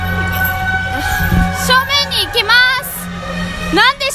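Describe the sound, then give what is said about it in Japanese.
Busy street festival ambience with a giant figure about 3 meters tall in a yellow and red costume and a demon mask: children's voices chatter over a steady droning hum, while bright, wavering whistle-like tones rise and fall through the crowd noise. “なんかお祭りですかねなんかあの操り人形みたいなみたいなのを操ってるでも何のお祭りかわからないけどとりあえずこのお祭りの雰囲気をリスナーの皆さんに味わっていただけたらなと思って今録音してます”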